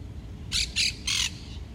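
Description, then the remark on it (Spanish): A bird gives three harsh, squawking calls in quick succession, fairly loud, over a low rumbling background with no one speaking. “Siento el sonido de los pájaros que me acompañan a conectar con esa naturaleza pura que va recorriendo mi cuerpo.”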